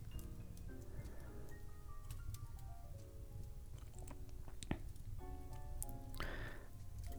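A fireplace crackles softly with a steady low hiss and scattered sharp pops, while a faint tinkling melody of relaxing Christmas jazz drifts over it; no one speaks.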